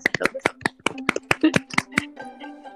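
One person, a guest in a virtual meeting room, clapping hands about a dozen times in a quick, slightly uneven rhythm, sharp, over a faint steady low hum that lingers after the claps stop.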